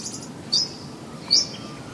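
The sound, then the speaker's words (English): Birds chirp outdoors at sunrise in Gippsland, Victoria: two short, bright, high-pitched calls about a second apart stand out over a soft, steady background hiss, with no voices. “And the birds are just waking up, as you can hear.”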